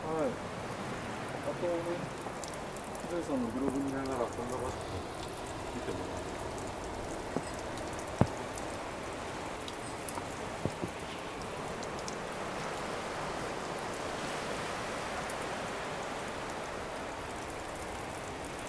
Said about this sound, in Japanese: じゃあもう一度この滝ですか滝のちょろちょろの音